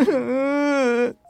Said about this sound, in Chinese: 这个时候，温蒂被房间里的哭声吵醒了。不过，她只是静静地从床上坐起来，并问彼得说：“ 你是谁？你为什么在哭？”